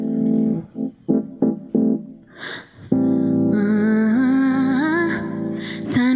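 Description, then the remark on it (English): A Juno synthesizer plays a few short rhythmic stabbed notes, then holds a long, bright sustained chord whose top note bends and slides upward, loud with no voices. “Actually, never played this on the Juno before, except so here we go.”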